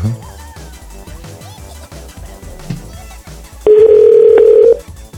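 A single loud, steady telephone ringing tone sounds for about a second near the end, over a rhythmic music track playing quietly in the background.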